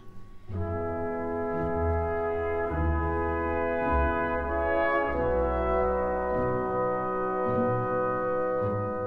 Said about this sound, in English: this beautiful chorale for the brass and winds, accompanied by just the most simple pizzicato in the strings, so just plucking the string without the bow. This it sounds like such a solemn kind of relief, accomplishment, a finished moment.